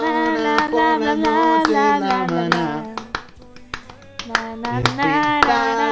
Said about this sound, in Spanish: Vean cómo no puedo hacer dos cosas a la vez. Quiero aplaudir y cantar.